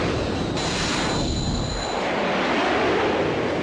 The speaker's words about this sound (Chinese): 警报！警报！基地进入一级战备状态，所有作战人员马上就位，一号机马上起飞。